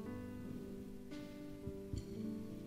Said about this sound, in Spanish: Eh, yo no sé a usted, pero a mí me encanta la lluvia.